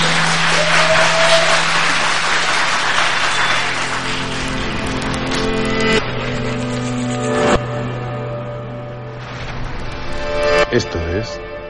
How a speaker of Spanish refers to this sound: así que voy a pedir por favor que el público que presente aplauda a la de tres, ¿vale? No os confundáis, a la de tres. Tres, dos, uno, público.